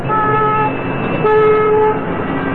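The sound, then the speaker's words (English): A loud car horn blares in two sustained honks, the first lasting over half a second and the second a bit longer, with steady traffic noise underneath and no talking. “Noise is our fault if we blow our car horns.”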